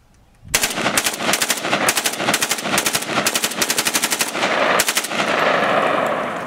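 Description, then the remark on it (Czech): An AK-47 assault rifle, built in 1946 by Red Army senior sergeant Mikhail Kalashnikov, fires several loud bursts of rapid automatic shots in quick succession, then the final volley fades into a lingering echo. “Takhle zní palba útočné pušky AK-47.”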